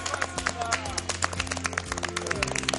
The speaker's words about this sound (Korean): 다시 한번 감사의 박수.